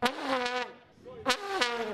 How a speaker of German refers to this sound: Eine Pupskanone.